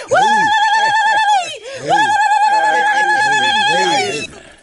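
A lamb that is being held for slaughter bleats loudly twice in long, quavering cries, a short one and then a longer drawn-out one after a brief pause, with a nasal, wavering tone and no talking.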